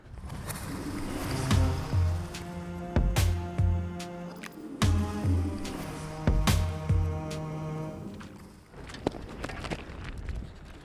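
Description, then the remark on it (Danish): Footsteps slosh into shallow water as a person carrying trays and small glasses wades in to search for bacteria, with a steady, unhurried rhythm, each step a fairly loud splash and shuffle, pausing briefly midway before continuing, with no one speaking. “Lad os se at få fødderne i vand, før vi går videre.”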